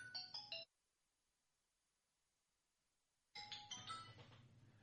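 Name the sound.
mobile phone ringing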